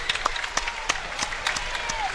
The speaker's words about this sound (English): And he gets a great hand from this big crowd here.